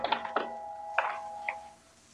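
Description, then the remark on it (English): A clock ticks with a few sharp clicks, bunched at first and then spaced out. A faint steady hum runs underneath, and no one speaks. “Well, there's your light and there's your clock, but no Tony.”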